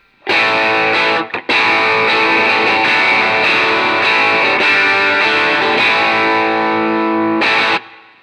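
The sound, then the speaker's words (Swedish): A loud electric guitar played through an overdrive pedal, set with volume at 12 o'clock, drive at 9 o'clock, and low and high tone at 12 o'clock, rings out in sustained chords, with a brief break near the start, then holds steady before cutting off abruptly and returning for a short final strum. “klockan 12, eh, volymen klockan 12, eh, driven klockan 9, mm. eh, ton och, eller low och high klockan 12.”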